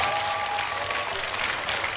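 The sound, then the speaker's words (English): A church audience claps together in steady, dense applause for the Black Stars after Ghana qualified for the World Cup, the sound of many hands filling the space without a break for the whole moment. “Clap for the Black Stars then.”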